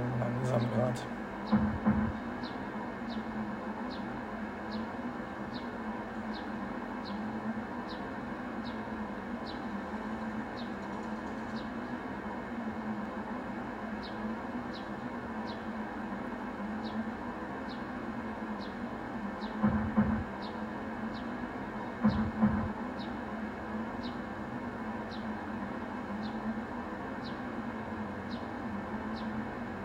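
A steady, droning rumble of a simulated train rolling along rails, with a faint, evenly spaced clicking ticking over it and a few brief thumps.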